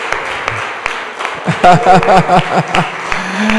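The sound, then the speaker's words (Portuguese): A crowd claps and cheers for Jesus in a dense, steady burst of applause, with sharp hand claps scattered throughout and voices rising in excited calls over the clapping midway through. “Aplauda Jesus.”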